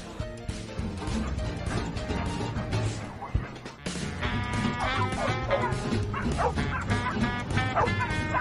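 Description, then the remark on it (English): Dogs bark and yip excitedly as they play tag, over a steady bed of background music, with repeated sharp, high-pitched yelps and a few whimpers mixed into the lively clamor. “He played tag with other dogs.”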